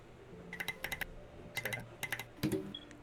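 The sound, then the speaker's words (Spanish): Crisp typing on a mechanical keyboard with T1 tactile switches and SA-profile keycaps, delivered in quick bursts of sharp, clacky keystrokes separated by short pauses, with no voices present. “Con t 1 y este eh, me encantó cómo se escucha con, con SA. O sea, sí truena. Truena bastante.”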